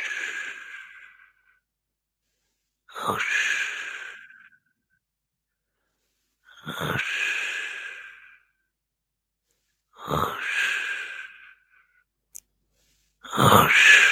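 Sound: voice imitating ocean waves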